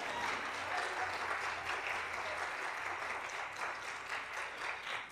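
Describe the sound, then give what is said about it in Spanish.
An audience breaks into loud, sustained applause for the Lord, a dense wash of many hands clapping steadily for several seconds with no voices standing out. “Si alguien lo cree, denle un aplauso bien fuerte al Señor.”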